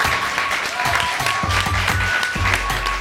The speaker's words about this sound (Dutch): Geef een grote applaus,